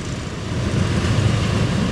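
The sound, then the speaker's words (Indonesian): Steady, low engine rumble and road noise heard from inside a car in a heavy traffic jam in the Cililitan area, a continuous droning hum at fairly loud level with no voices. “anjrit macet ini gue udah sampai btw gue udah sampai celilitan daerah yang gak ada obat anjir macetnya mungkin ada lo yang sering lewat sini juga uh, sanjing anjing macet aja”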